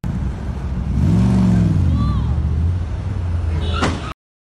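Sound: car engine revving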